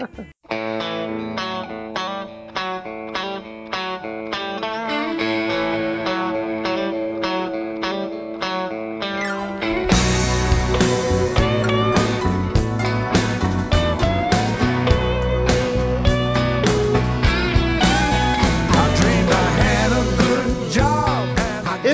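A blues rock song led by electric guitar: a sparser, choppy riff opens, then the full band crashes in about halfway, louder and denser with a steady driving beat.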